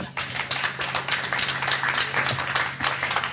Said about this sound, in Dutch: Eh, kijk, nou ja, we gaan er even een applaus, toch?